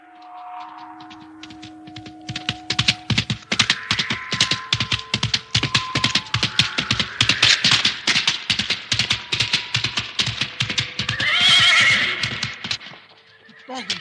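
A horse gallops through a forest, its hooves pounding in a fast, steady rhythm, then it lets out a loud, shrill neigh near the end as it throws its rider, before the hoofbeats fade. A low steady tone plays at the start.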